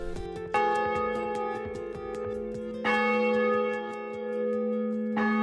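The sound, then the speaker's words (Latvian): A large church bell in Latvia tolls three times, ringing to call people to a church night event, each strike loud and ringing out with a long, shimmering hum that sustains between strokes, with a faint ticking pulse running underneath. “Ar baznīcas zonu skaņam izvana Miša Sokas, atzīmē reliģiskus svētkus, cik svarīgas dzīves notikšanas draudzes locekļu dzīvēm bet ituvakar ap 170 baznīcas pa visu Latviju ar izvanēšanu saucis baznīcu nakts notikšanam.”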